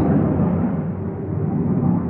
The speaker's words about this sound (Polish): E, no, we wtorek we wtorek jest to święto Armii Polskiej. Może to po prostu myśliwce zlatują po to, żeby we wtorek przelatywać gdzieś tam.